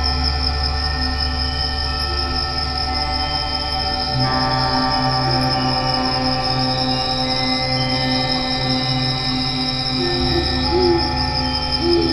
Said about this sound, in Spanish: Las ventanas armónicas de cuarzo, instrumentos de cristal, cuerdas y circuitos acompañan a una algarabía nocturna de lechuzas y grillos en Baja California Sur.